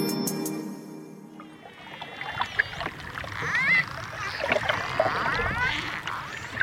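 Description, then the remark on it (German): A dolphin moving through water: steady rushing, bubbling water noise with repeated high, squeaky whistles and chirps sweeping up and down, after a brief tonal opening. “So klingt es übrigens, wenn sich ein Delfin durchs Wasser bewegt.”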